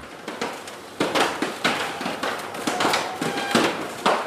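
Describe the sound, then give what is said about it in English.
A stiff door creaks open with a run of rough, ratcheting clicks and groans, steady, with no voices. “Oh, that's stiff and creaky, isn't that's, it?”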